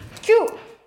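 A single quick sneeze: a short, sharp voiced burst with a slight pitched tail that fades away within a moment, with no talking around it.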